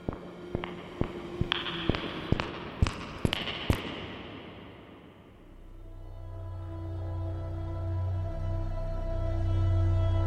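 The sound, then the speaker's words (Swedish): About a dozen sharp, echoing footsteps grow louder as they come closer over a few seconds, then stop and give way to a low, steady droning hum. “En svag doft av järn följt av ljudet av fotsteg. Fotsteg som kommer allt närmare.”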